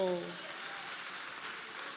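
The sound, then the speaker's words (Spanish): An audience claps for Christ in a dense, even wash of applause that fills the whole moment, with the tail of a voice fading out at the very start. “¿Cuántos le damos un aplauso a Cristo?”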